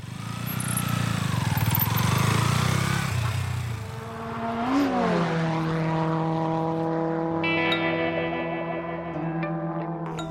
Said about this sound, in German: Doch es klappt. Das so typische Merkmal jedes Motorrads ertönt.